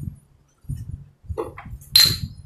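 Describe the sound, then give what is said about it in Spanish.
Glasses clink together once in a toast, a bright ringing tap that lingers briefly, preceded by soft handling noises over a low background rumble. “Ok, exacto. Salud.”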